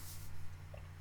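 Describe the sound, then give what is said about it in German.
A quiet sip of water, with a soft slurp at the start and a small gulp just after, with steady low hum underneath and no talking. “Ich muss kurz mal wieder einen Schluck Wasser trinken.”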